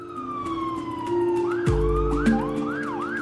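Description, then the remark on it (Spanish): An ambulance siren wails, its pitch gliding down and then rising and falling in quick repeated sweeps over a steady engine hum and a low rumble, with no voices. “La acompaño a la ambulancia, la escolto prácticamente y llego ya a urgencias.”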